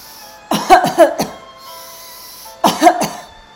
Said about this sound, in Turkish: Nefes alıyorum ve nefesimi verirken ağzımdan ittirerek veriyorum. Tekrar burundan alıp ağzımdan güçlü bir şekilde öksürür gibi veriyorum.